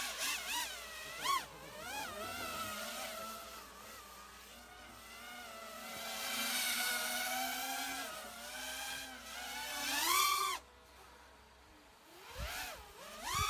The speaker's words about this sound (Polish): Tam mamy też parę dronów w powietrzu. Wygląda to naprawdę dobrze.